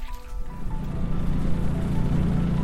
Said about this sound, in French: Il est 15h, nous revenons à terre, le bateau chargé de naissins, des huîtres qui ne sont âgées que de quelques mois.